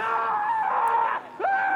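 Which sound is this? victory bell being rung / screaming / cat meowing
screaming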